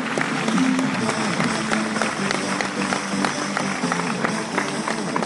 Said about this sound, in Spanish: Un aplauso para el diamante.